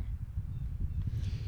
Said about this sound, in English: if you guys hear a little bit of noise in the background, it's because it's a little bit windy out here, which is pretty good. Typically, we don't get weather like this in Houston during this time.